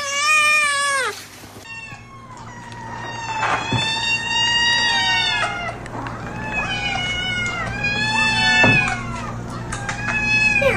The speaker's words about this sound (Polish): Powtórzymy może ten dźwięk jeszcze, bo to on jest bardzo złożony. Słuchajcie, najpierw odzywa się jeden kot, a potem, no zresztą, co ja będę opowiadał? Jeszcze raz kot drugi.